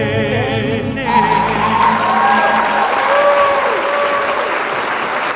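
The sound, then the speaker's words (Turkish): Applause sound effect sent by a radio host on İzmir's On Net radio after a song: a steady, dense wash of clapping from a large crowd that rises in after a brief musical ending and stays loud and even throughout, with faint whistles or cheers mixed in. “Evet dostlar alkışları gönderdim.”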